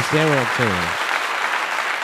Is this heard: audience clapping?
yes